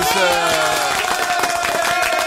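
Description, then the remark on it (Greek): A short burst of dense, steady applause from many hands, loud, with a faint sustained tone running underneath for a couple of seconds. “Η εκπομπή χειροκροτεί αυτή τη.”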